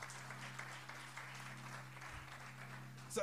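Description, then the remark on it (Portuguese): A crowd applauds the Lord steadily, a dense, even wash of many hands clapping for a few seconds, with a low hum underneath and a brief louder burst at the end. “Tem um aplauso ao Senhor, vamos juntos.”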